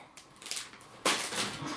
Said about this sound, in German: Mach mal ruhig die, äh, die weiße Tüte auf.